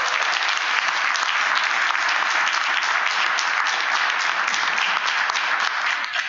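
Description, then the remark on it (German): A crowd applauds steadily to welcome a guest just elected as a direct candidate for the Bundestag in Berlin, with dense, continuous clapping that stays loud and even for the whole stretch, with no voices rising above it. “Herzlich. Applaus”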